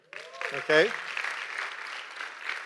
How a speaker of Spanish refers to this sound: Dese un aplauso al Señor.